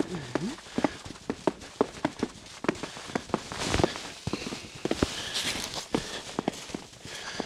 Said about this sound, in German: Aber hört selbst. Oh, ich denke, es sind so um die 0 Grad. Schnee knistert.